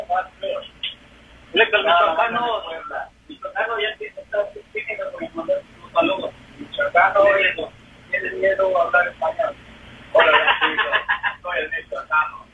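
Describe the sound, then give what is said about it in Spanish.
A caller's voice comes through a telephone line on a radio broadcast, sending greetings on air, thin and muffled, speaking in short uneven bursts with pauses between phrases, hard to make out. “Ay, michoacano, yo no sé dónde te pusiste hoy el teléfono que no te escuchas nada.”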